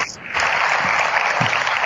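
An audience breaks into applause at the announcement of Apple Pay partners, a dense wash of clapping that swells in after a brief quieter moment and holds steady and loud, with no voices standing out.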